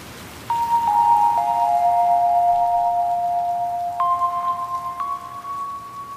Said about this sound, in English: Well, it was raining in Los Angeles again.